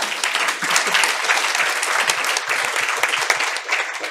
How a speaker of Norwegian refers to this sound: Applausen til deg.